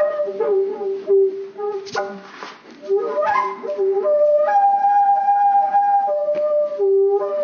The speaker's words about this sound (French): On appelle ça une flûte éolienne, parce que c'est le vent qui en joue.